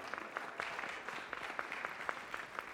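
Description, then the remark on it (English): A crowd applauds steadily, dense overlapping claps forming a continuous crackling wash with a few sharper individual claps standing out, moderately loud and sustained throughout. “If you be clapping, you don't, get, you don't have to listen to me the whole time, okay?”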